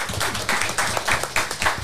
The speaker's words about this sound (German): Ein Applaus.